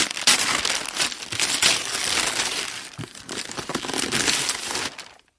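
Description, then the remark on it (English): Wrapping paper crinkles and tears continuously for about five seconds as a wrapped Christmas present is unwrapped, a busy, bright rustling with sharp crackles and rips, fairly loud, with no voices. “I wrapped it up. So let's just go ahead and unwrap it.”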